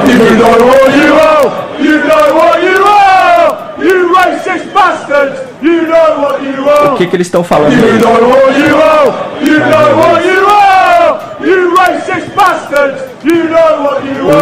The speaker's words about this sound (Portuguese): E tem um terceiro, tem um segundo vídeo que é o grito da torcida, da torcida inglesa, depois de terem sido terem seus jogadores